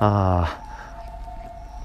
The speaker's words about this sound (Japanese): うわすげえ救急車だこんな時間にごめんなさいね音聞こえますよねみんな